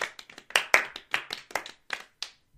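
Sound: played-in applause sound effect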